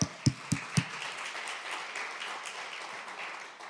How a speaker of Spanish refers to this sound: Debes aplauso al Señor.